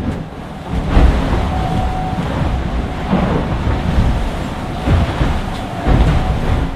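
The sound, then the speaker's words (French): Inside an IMOCA 60-foot monohull racing sailboat at sea: a loud, continuous roar of wind and rushing water with deep hull rumbles and occasional thuds, no voices. “tentative de podcast numéro 2 à bord de l'IMOCAP Biotherm”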